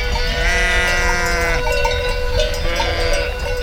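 sheep bleating

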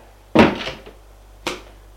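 door opening

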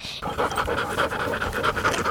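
dogs panting

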